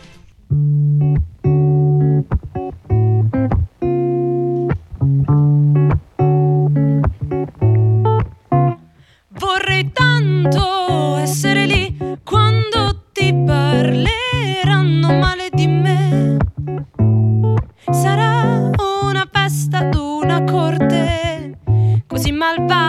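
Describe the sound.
A rock song plays on the radio, loud and steady, with a sustained chord-heavy backing and a regular pounding beat; a lead vocal comes in about halfway through, over a fuller, brighter band.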